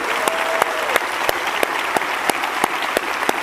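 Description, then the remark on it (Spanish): Sustained applause from a church audience during a televised service, a dense steady wash of clapping with a few sharper individual claps popping out at regular intervals, fairly loud throughout with no talking. “Entonces quiero que invitarlos a que le demos un buen aplauso a toda esa gente y a aquellos que nos miran por televisión también.”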